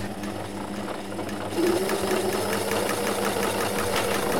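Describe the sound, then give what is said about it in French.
A sewing machine, faulty with a capacitor problem in its motor, runs on its own, whirring steadily with a fast, rhythmic mechanical clatter, then abruptly grows louder and speeds up partway through, racing on without pause. No voices are heard. “Donc ben voilà, ça c'est une machine à coudre euh, qu'un couple de personnes âgées m'a confiée en fait.”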